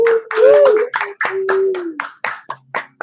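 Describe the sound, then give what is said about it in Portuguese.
Applause made of loud, sharp claps in an uneven run of about three per second, with a sustained hum or whoop beneath the first two seconds. “Vamos dar mais uma salva de palmas para quem escutou a gente, não só esse episódio, mas essa temporada todinha, todas, todas e todas.”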